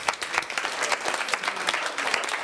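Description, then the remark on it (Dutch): An audience at the talk show Spuigasten claps steadily throughout, a dense wash of many hands with sharp individual claps standing out, sustained at a fairly even loudness with no voices on top. “Geef ze een applaus alsjeblieft.”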